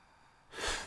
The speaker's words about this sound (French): Une deuxième respiration. À côté de toi.